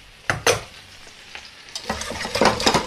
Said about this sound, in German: Was ihr hier schon mal brötscheln hört nebenbei, das sind die kleinen Kartoffeln die ich ja angekocht hatte und jetzt in Olivenöl brate.